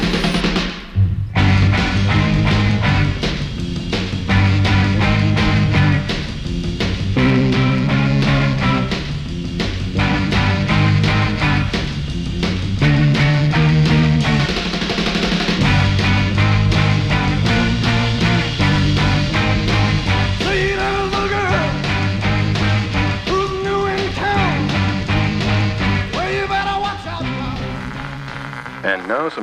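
A loud, driving rock song plays throughout, with a full band, pounding drums and a raw lead vocal keeping a steady, energetic beat from start to finish.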